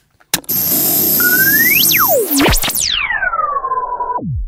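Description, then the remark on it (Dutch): High-pitched whistling tones, played as an example of noise, glide up and down over a loud, steady rush of noise, joined by a thin, constant high whine. No one speaks. “Maar je hebt natuurlijk ook het geluid, eh, wat lawaai, eh, de hoge fluittonen.”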